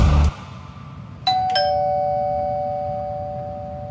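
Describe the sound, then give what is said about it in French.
A doorbell, rung by a 75-year-old man delivering meals to people in need in his neighbourhood, chimes a clear two-tone ding-dong, the second note ringing out and slowly fading. Distinct, with no voices over it, just a faint background hum. “Le son de cette sonnette vous semble probablement bien banal.”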